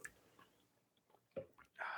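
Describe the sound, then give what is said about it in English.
Quiet sipping of water from a can: a few soft wet mouth and swallowing sounds, then a louder breathy sigh or slurp at the end, with no talking. “Let's go ahead and sip it.”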